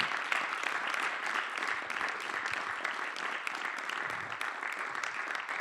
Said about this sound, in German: Ich freue mich, dass zwei der nominierten Komponisten heute hier sind. … für Victoria. Genau, klatschen.